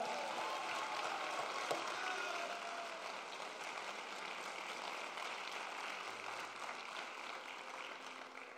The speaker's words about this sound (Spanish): Vamos a darle tu mejor aplauso al Señor.